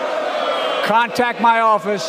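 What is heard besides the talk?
audience booing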